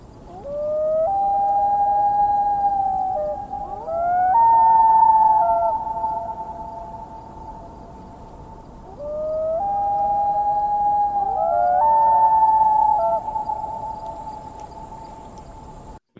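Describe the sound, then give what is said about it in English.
A common loon's mournful wailing call, long sustained tones that step up in pitch and hold, sounded as two similar phrases in succession with no voices present. “who hasn't laid awake at the cottage and heard that plaintive sound out on the lake and been moved by it?”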